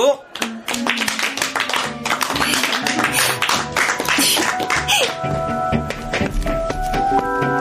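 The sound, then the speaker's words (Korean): Scattered, uneven clapping from a group of classmates in a classroom, given at the teacher's call after a pupil read a text aloud, the claps irregular and unenthusiastic rather than in rhythm, with voices murmuring underneath as the clapping thins out toward the end. “성의 없고 산만한 아이들의 박수 소리를 들으며 나는 이번에야말로 마음껏 의기양양해하며 자리로 돌아와 앉았다.”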